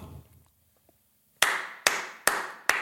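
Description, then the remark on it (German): Four loud, sharp hand claps in a steady rhythm, following a brief quiet murmur at the start. “Wir haben gestern festgestellt, dass ich sehr laut klatschen kann.”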